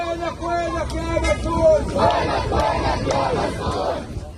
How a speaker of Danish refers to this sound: Hvor er du, å beslutningstager? Hvorfor tager du så let på vores liv? Forbandede erhvervsmand, du tager let på vores liv, råber demonstranterne i Gaza i det her klip